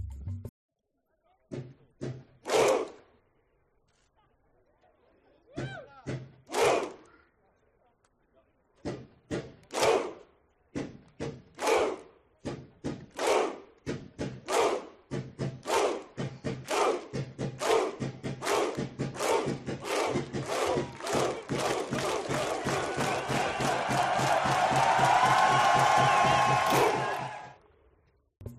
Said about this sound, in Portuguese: Entretanto, não podemos encerrar esta edição de 2018 sem mencionar a querida torcida islandesa, que fizeram um espetáculo nos estádios com seu famoso grito viking.